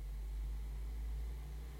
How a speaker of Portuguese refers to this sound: Vai passar um ônibus agora eu vou ficar muito, muito, muito, muito bolada. Porque se esse ônibus interferir muito no áudio, não, vai ser paia.